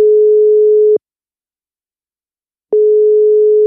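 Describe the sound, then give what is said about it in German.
A telephone ringback tone of an outgoing call: a steady, clear electronic hum lasting about a second, a long pause, then the tone starting again. No voices. “haben wir dem Thomas schnell angerufen”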